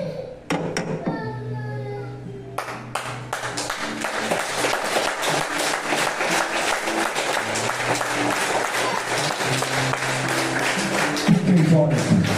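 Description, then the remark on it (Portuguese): A brief vocal sound opens, then an audience breaks into steady, dense applause, many hands clapping together in a continuous crackling roar that holds at full strength for about ten seconds. “Você nunca vai ver as pessoas aplaudindo de qualquer jeito.”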